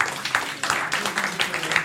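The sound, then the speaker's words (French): A short burst of applause from a small group, a steady crackle of many hands clapping at moderate volume, lasting about two seconds with no voices over it. “On peut applaudir.”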